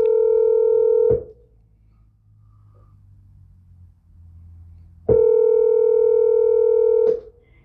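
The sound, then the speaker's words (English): A phone line rings back twice while a call waits to be answered, each steady electronic tone lasting a couple of seconds, separated by a long quiet gap with faint low background hum, loud as if through a handset. “Let's see, let's see if they answer the phone first.”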